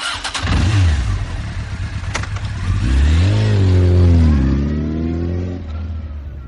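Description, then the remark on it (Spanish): A car engine cranks and catches, idles with a low rumble, then revs hard twice, its pitch climbing and falling. Loud, with no voices. “Así que prepárate y enciende tus motores, porque ya vamos a comenzar.”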